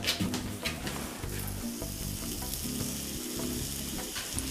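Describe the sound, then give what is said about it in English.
Batter sizzles steadily in a hot cast iron pan, a continuous crackling hiss with faint pops and a low hum underneath, heard alone without talking. “Hear it already sizzling?”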